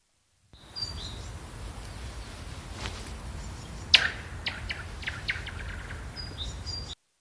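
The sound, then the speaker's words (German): Several short, high bird chirps ring out over a steady low rumble in a video, with a sharp sudden crack partway through as a stone is thrown, followed by more scattered tweets and clicks. No one speaks. “einmal hört man die Vögel und jetzt wird der Stein geworfen”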